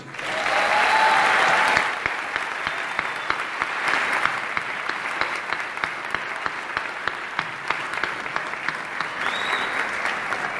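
A crowd bursts into loud, sustained applause, densest in the first two seconds, then continues as steady clapping with individual claps standing out, fading slightly toward the end.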